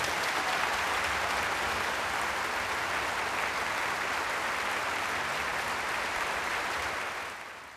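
Sustained, dense audience applause after Antonio Pappano and Jan Lisiecki played Schumann's Bilder aus dem Osten as a piano duo at Pappano's Dresden debut, a steady crackling wash of many hands clapping at an even loudness throughout, tapering slightly at the very end, with no voices heard.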